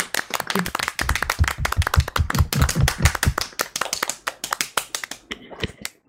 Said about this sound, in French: Merci à tous. Merci à tous. C'est grâce à vous qu'on a pu notre le 300e épisode. on peut applaudir, on peut même s'applaudir. Hein, allez-y, il n'y a pas de problème.